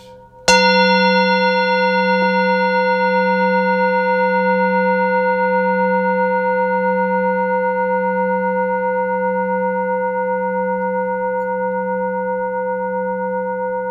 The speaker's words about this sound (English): See if you can be fully aware the moment the sound of the bell disappears.